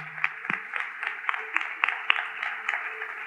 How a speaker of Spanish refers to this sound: Demos un aplauso a la doctora Lorena Ríos en este momento.